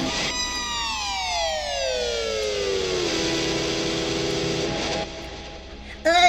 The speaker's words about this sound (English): Ugh, does he have to come out of nowhere and with that air horn now? Yes, he does.